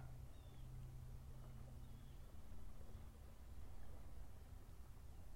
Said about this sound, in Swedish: Ljudet från en avlägsen båt.